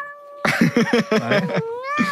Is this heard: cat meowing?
yes